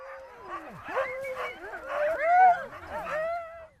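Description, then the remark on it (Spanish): Greenland dogs bark, yelp and whimper in an overlapping chorus, with high, wavering whines and short howl-like cries rising and falling throughout, fairly loud with no talking. “El groenlandés es una de las razas de perro más aisladas genéticamente.”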